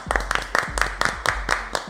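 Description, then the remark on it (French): Steady, rhythmic clapping, roughly four claps per second throughout, moderately loud, with faint voices murmuring underneath. “il a pas applaudi.”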